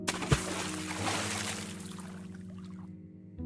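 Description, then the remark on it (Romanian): Something splashes into a swimming pool with a sharp hit, followed by a noisy wash of water that gradually fades over a few seconds, with a steady low hum underneath. No voices. “Pe măsură ce valurile explozii s-au muiat, am auzit o stropire.”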